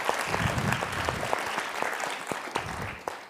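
A conference audience claps loudly and steadily for the professor at the end of a lecture, a dense wash of many hands with a few sharper individual claps standing out, sustained for a few seconds without any voices.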